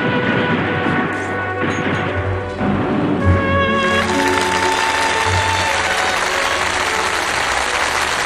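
An audience applauds steadily and loudly for the whole stretch after a three-person acting performance on the stage show The Birth of an Actor (演员诞生), a dense wash of clapping with sustained musical tones ringing underneath.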